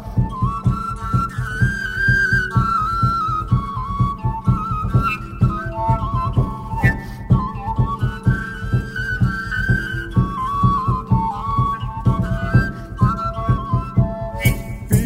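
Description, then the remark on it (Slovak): A bright, high melody on a small folk pipe (whistle) plays steadily over a full, rhythmic band accompaniment with a pulsing low beat, lively and continuous throughout, with no voices. “beriem ťa so sebou, keď mi bude smutno, zapískam si s tebou.”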